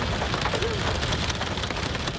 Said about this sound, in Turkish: Ardahan dün yağmur alan 4 ilden biriydi. Kentte hem yağmur hem de dolu etkili oldu. Sürücüler ilerlemekte güçlük çekti.